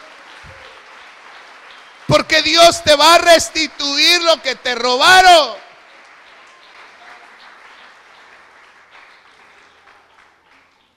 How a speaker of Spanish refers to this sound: Gloria a Dios, dele palmas al Señor.